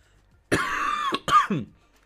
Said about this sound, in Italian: guardate c'è ancora un po' di tosse che purtroppo non riesco, non riesco a levarmi, soprattutto quando parlo così tanto è più difficile.